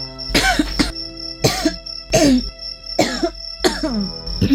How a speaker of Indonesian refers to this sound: Nah, tuh kan batuk-batuk lagi kan? Begitu kok masih ingin nambah angin, Bu?